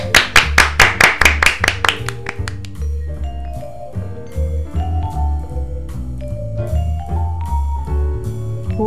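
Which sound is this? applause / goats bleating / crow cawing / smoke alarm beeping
applause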